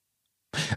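A single sneeze bursts out after a moment of silence, sharp and breathy, followed by the start of another noise at the very end.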